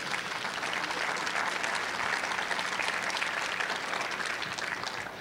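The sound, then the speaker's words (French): Steady applause at a church gathering for Click's work at the portal, a dense wash of many hands clapping at an even loudness for about five seconds, with no voices breaking through. “Je pense que ça vaut une bonne main d'applaudissement.”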